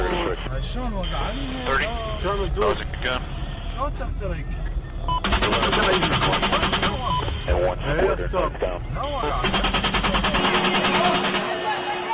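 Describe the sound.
Rapid bursts of automatic gunfire come in two long, loud volleys of fast repeated cracks, with crackly radio-style voices talking at the start and continuing beneath the shooting, in audio of United States drone attacks on military targets in the Middle East.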